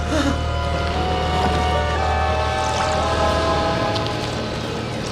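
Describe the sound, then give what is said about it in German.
A small spherical submarine surfacing in a lake and moving toward the shore, pushing farther out of the water: a steady low engine rumble with a droning mechanical whine and water churning, holding constant before easing slightly near the end. “Ein kugelförmiges Objekt näherte sich Meter für Meter dem Ufer und schob sich dabei immer weiter aus dem Wasser.”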